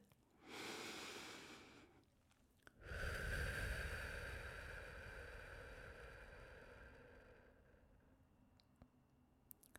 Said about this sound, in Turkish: derin bir nefes almaya davet ediyorum size.